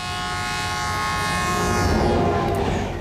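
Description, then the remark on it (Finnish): A train horn blares steadily over the low rumble of The Canadian passenger train rolling along the tracks across Canada, loud and sustained the whole time with no voices. “Ehkä ottaisin kuitenkin The Canadian junan.”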